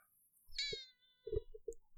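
A cat lets out a loud, drawn-out meow, its harmonics sweeping downward, followed by a few short thumps and scuffling noises close to the microphone, with no one speaking.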